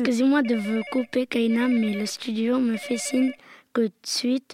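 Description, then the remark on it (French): A telephone rings with an incoming call in repeated electronic bursts beneath a man talking steadily, the ringing moderately loud and continuing through most of his speech. “nous avons déjà un premier appel.”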